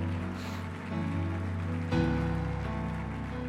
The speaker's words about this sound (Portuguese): Sabe, pode aplaudir o Senhor.